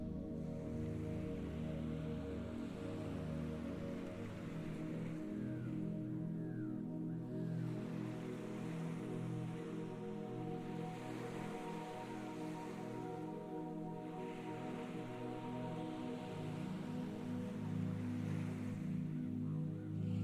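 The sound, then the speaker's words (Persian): Steady sea waves wash continuously with a broad, soft roar, gentle swells rising and falling at moderate, even volume. No voices are present. “صدای امواج دریا جسم و ذهنتون رو آروم میکنه”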